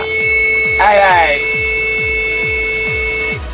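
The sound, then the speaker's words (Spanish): On a radio show, a long, steady high-pitched beep tone sounds continuously for about three seconds, with a rhythmic low thumping pulse underneath and a brief burst of higher harmonic noise near the start. “Y venga, este pitido va por vosotros, va.”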